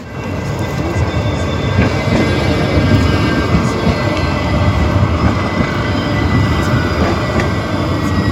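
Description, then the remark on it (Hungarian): A red line 1 tram rolls past and departs, a steady loud rumble of wheels on rails with a faint metallic whine above it, holding strong throughout with no voices. “Ez a villamos, és elment.”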